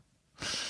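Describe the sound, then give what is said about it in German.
A single sharp sneeze bursts out after a moment of near silence, a loud, breathy, hissing blast that stays strong until the sound cuts off. “Gesundheit.”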